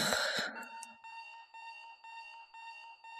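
An alarm clock rings with a steady electronic beeping tone, pulsing in a regular rhythm about every half second, following a brief rustling, breathy noise at the start.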